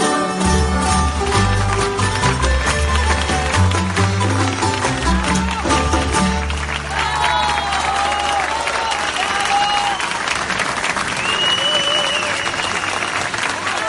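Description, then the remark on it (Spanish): A large audience claps loudly and steadily for about fourteen seconds. Low music fades out early on, and cheers and whistles rise over the dense clapping in the second half. “Un fuerte aplauso.”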